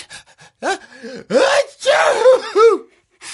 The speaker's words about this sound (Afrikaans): Dit beteken ek moet weer my hande gaan was. Jep, jy het in jou hande genies. Jy sal weer moet gaan was.